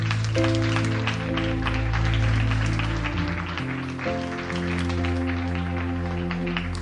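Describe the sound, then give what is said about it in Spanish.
A crowd claps steadily and loudly for several seconds as applause for the Lord, a dense wash of hand claps over sustained keyboard or organ chords that shift underneath. “Demos un aplauso a nuestro Señor.”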